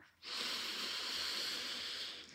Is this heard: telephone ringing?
no